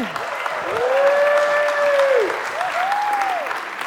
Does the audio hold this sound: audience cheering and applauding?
yes